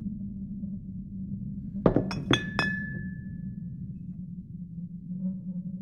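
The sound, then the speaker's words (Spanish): A glass jar of holy water on a piece of furniture beside a door clinks sharply four times in quick succession, the last knock leaving a clear ringing tone that fades slowly over a steady low hum. “El sonido de un recipiente de cristal hizo que dirigiera la mirada hacia el mueble que estaba frente a mí, a un lado de la puerta.”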